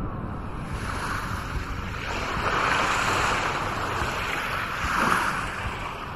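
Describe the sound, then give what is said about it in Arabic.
Steady ocean surf washes in broad, continuous swells, rising to fuller crashes around the middle and near the end, with a breathy wind-like rush underneath and no voices. “اخذني وصار بي نحو البحر الكبير”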